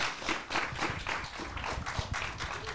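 An audience claps steadily for a few seconds at a recording of the Radio 4 TV-and-series programme Stream Chill, a dense patter of many hands at moderate volume, with no one speaking over it.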